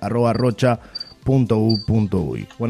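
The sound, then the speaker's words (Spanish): A cricket chirps in short, high-pitched bursts, faint and steady in the background while a person keeps talking over it. “escucho un grillo ahí, está todas las mascotas, ¿eh?”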